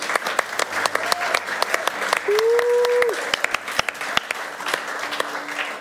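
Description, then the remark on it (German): An audience at Netzwerk 43 applauds, a dense, steady patter of many hands clapping throughout, with a brief rising whoop or cheer in the middle and faint crowd voices mixed underneath. “Der Applaus hier, der ist für dich.”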